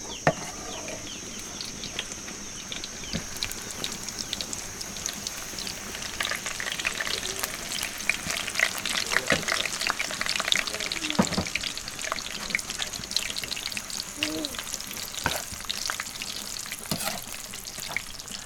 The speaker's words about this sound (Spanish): Ya se están dorando los chiles, pero no son muy dorados. Nada más así.